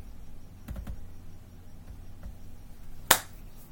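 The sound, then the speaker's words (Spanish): A single sharp, loud hand clap, like swatting a mosquito, cracks out after a few seconds of quiet broken only by a couple of faint clicks. No one speaks. “Se me atravesó un mosco y le di un aplauso.”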